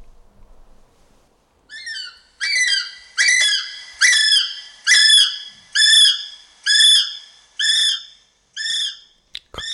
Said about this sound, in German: Kann ihm keiner helfen? Wahrscheinlich schon. Also, wie du es jetzt gehört hast, es war übrigens keiner in Not, mein heutiges Thema ist der, ist der Kiwi, also nicht die Kiwi und auch nicht der neuseeländische Kiwi, sondern der Vogel.